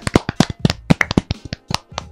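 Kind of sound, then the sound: crowd, applause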